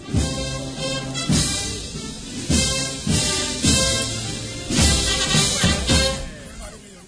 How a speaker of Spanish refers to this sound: Y es en este momento también cuando arrían el paso para escuchar también este himno oficial